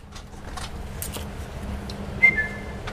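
A Zolli zookeeper whistles once to call the king penguins in front of the Vivarium early on a February morning at about 5 degrees: a single short, high whistle cuts through a steady outdoor rumble, briefly rising before trailing off; no one speaks.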